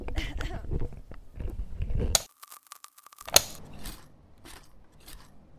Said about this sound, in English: What are you doing with a rake?